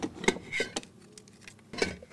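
Rummaging through a box holding a broken saucer, a plush dragon, a heart-shaped casket and bandages, with irregular clinks and knocks of glass or crockery and soft shuffling, rising in bursts and pausing briefly.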